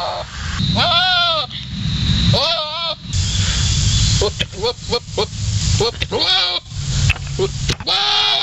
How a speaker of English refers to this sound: Uh, how do goats get pregnant? Well, goat mating, which sounds like this.